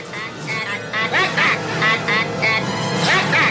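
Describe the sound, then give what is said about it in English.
A run of loud, nasal 'ack ack' squawks from a movie alien, duck-like, coming in quick repeated bursts over about three seconds with a steady background hum underneath. “If you'd have just played that with no context, I would have been like, why is there ducks?”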